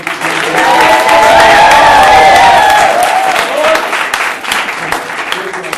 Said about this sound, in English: And I, I, think we need to give a round of applause